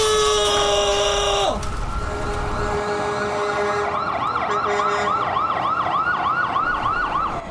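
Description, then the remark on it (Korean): A fire truck siren sounds over engine rumble as the truck enters an alley toward a burning villa, beginning with a long steady tone that drops away, then switching to a fast, rhythmic warbling wail as the vehicle pulls in. “영준이 옥탑을 내려오니 소방차가 진입해 들어왔다.”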